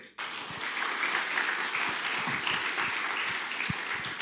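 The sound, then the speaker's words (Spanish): A church crowd applauds God, called the king, steadily, a dense wash of many hands clapping at an even loudness for several seconds, with a few sharper individual claps standing out and no one speaking. “Denle un aplauso al rey.”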